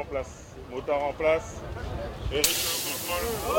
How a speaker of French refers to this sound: Voilà donc vous l'avez entendu, on entend une crevaison. On retarde un petit peu le départ puisque le départ n'a pas été donné, donc on va lui laisser le temps de remplacer la roue.